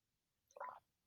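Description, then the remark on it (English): A brief, soft wet slurp of someone sipping a drink, followed after a short pause by a single crisp click like a swallow or lips parting. No one speaks. “Um but for me, excuse me, I just want to take a sip here.”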